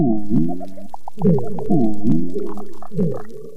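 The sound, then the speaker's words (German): A mysterious foghorn-like underwater sound of unknown source, recorded at a coral reef in Indonesia: low, drawn-out tonal moans rising and repeating several times, fairly loud, with faint clicks and crackles in the background. “Wer dieses geheimnisvolle Nebelhorngeräusch macht, das weiß bisher niemand.”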